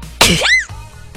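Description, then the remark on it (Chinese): A single sharp sneeze: a loud burst of breathy noise followed by a brief voiced, arcing squeal of pitch, then quiet. “真的啊，你们太想我了，搞得我就打喷嚏了。”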